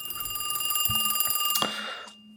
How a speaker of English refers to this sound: You pick up the phone, and Dom, your phone starts ringing.